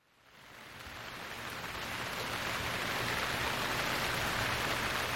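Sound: heavy rain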